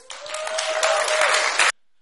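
A burst of audience applause, dense overlapping clapping that holds steady and fairly loud for under two seconds before cutting off abruptly, with a faint steady tone running beneath it.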